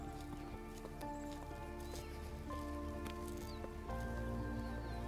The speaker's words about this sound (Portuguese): Eu percebo cada som à minha volta, um animal, os pássaros, o som dos meus passos no chão.